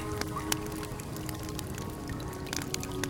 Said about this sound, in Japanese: ちょっと音楽変えますか焚き火いっちゃいます焚き火ここに焚き火ミックスしちゃいますかカモン焚き火